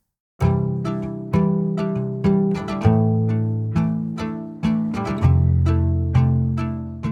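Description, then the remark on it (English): A rubber bridge guitar, recorded through its pickup plus a microphone placed in front of the guitar, plays a slow melodic line of plucked notes, each with a round, thumpy attack that decays quickly. It is clear, with no voices. “So that's the sound of the pickup in the guitar, and then this is uh, with the microphone that we put in front of the guitar added.”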